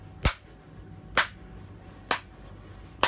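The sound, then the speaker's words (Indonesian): Four sharp hand claps marking the beat of a song being taught, in a steady, even rhythm, a little under a second apart, each crisp and bright with a quick decay, with no talking in between. “Tepuknya begitu kan?”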